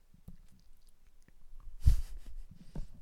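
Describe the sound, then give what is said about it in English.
Chewing of candy, with soft irregular mouth sounds and small crunches building to one louder crunch partway through, then continued quieter chewing with no talking. “I'm eating this a uh, candy.”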